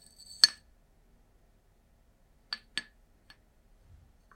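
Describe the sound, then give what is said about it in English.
Crisp clinks of a ceramic tea cup against a kettle while hot water and winter night tea are prepared: one bright ringing knock, then a quieter cluster of three light taps a couple of seconds later, with no talking. “I've prepared some hot water and my winter night tea.”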